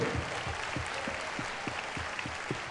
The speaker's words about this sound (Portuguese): Então aplaudam ao Senhor comigo.